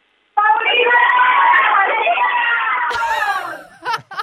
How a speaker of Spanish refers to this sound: ¡Saludos! Para que van a gritar todos por acá el saludito. Uno, dos, tres.